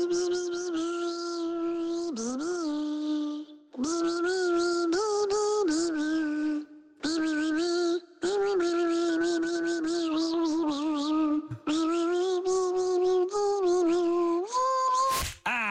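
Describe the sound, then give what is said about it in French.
A tune sung in a thin, nasal, buzzing voice imitating a mosquito, with wordless phrases separated by brief pauses, loud throughout. “Je vais vous faire écouter des titres chantés, interprétés par un moustique.”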